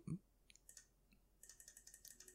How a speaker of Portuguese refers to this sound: Isso aqui é o barulho do é meu mouse. Eu tô voltando no calendário para ver se era 1 de abril de 2018